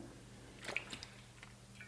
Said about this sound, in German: Nächster Schluck Wasser, Sekunde.